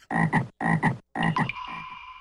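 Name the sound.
frog croaking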